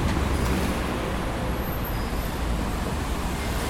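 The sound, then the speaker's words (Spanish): Steady roar of street traffic along Avenida Corrientes, recorded while walking beside the traffic, a dense wash of engine rumble and tire noise that stays loud and constant throughout at average levels of about 73 to 75 decibels, with no voices. “caminando por la avenida Corrientes, al costado del tránsito.”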